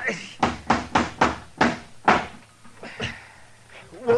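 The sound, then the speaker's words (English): A hammer drives a nail into a rotten, dry wooden door to hold it in place, with about six sharp blows in a steady rhythm, followed by a couple of softer knocks and a brief voice. “Now, let's just try one more nail.”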